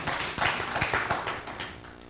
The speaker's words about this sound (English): We are of the belief that God came down to this earth to do what we could not do for ourselves, and He continues to come on down and meet us in our everyday lives. Yeah, we can clap to God for that.